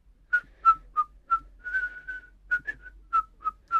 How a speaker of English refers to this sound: He looked quite different when he smiled. He whistled very softly.